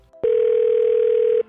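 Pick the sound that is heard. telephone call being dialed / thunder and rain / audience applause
telephone call being dialed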